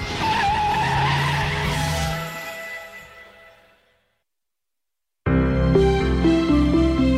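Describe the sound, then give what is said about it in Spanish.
Car tires skid and squeal loudly for a few seconds, fading away into silence before another loud, dense burst of sound abruptly kicks in. “Este coche tira bien.”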